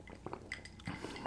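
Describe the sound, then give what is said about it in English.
Someone drinking water: soft clinks and faint sipping sounds, then a louder, dull thump at the end like a glass being set down. No one speaks. “Let me grab a drink of water real quick.”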